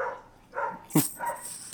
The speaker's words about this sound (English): If you can hear the dogs barking outside, because they're out having fun and I'm here recording this.